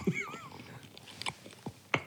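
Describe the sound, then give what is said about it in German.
Wet smacking as someone chews bread dipped in a garlic dip, with a few distinct mouth clicks spread over two seconds, after a short hummed murmur at the start. “Ja, dipp mal an und schmatz mal einen rein.”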